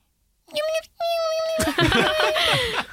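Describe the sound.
A person imitates a rat laughing with their voice: two sustained whistle-like squeals followed by a burst of trilling, warbling chatter, fairly loud.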